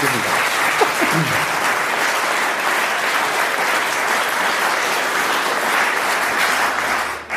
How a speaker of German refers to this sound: Applaus